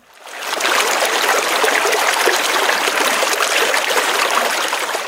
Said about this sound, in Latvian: Kas tur varēja skanēt? Nu, izklausās, kas ir trautiņš vai mazs ūdens kritums. Mm. Krācīts.